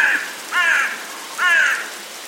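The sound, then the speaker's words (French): A crow caws three times in quick succession, harsh and raspy, clear with short pauses between calls and no voices. “Les légendes parlent de Corbeau comme le messager de la mort ou même du diable.”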